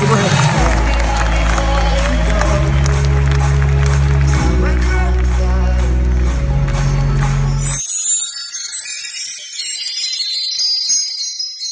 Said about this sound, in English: Give her a big hand. Thank you very much.